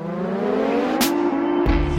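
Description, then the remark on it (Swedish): A Royal Enfield motorcycle engine runs loud with a steady, throaty hum, a brief sharp burst midway, then drops into a deeper, rougher rev near the end. No one speaks. “Det är när jag hoppar på min Royal Enfield och tar mig igenom den kaotiska trafiken här i Rishikesh och sen tutar upp i bergen mot eh, ett tempel eller en vacker plats.”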